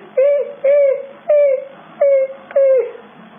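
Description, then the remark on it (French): A small animal, a mouse caught by a lion, squeals five times in a steady rhythm, each cry short, whiny and tonal, fairly loud, with no talking over it. “Il a attrapé la souris. Écoutez la souris, elle crie.”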